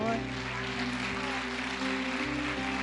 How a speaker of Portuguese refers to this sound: Amém, queridos. Aplauda o Senhor.